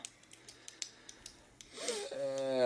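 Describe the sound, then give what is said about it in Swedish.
A ballpoint pen clicks over and over at an uneven pace, sharp ticks, before a voice starts speaking at the end. “Nej, jag skiter Shit, man, man hör klick på pennan.”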